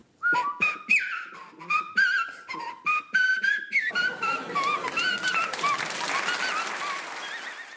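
Whistling done with a toe held in the mouth, the tongue wrapped as far as possible around the toe while blowing: a run of short, breathy whistled toots at first, then a wavering, airy warble over hissy noise.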